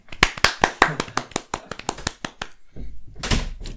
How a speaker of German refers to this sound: Großen Applaus, danke dir.